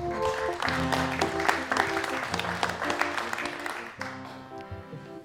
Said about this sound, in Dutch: Dus een applaus voor Babs Gons.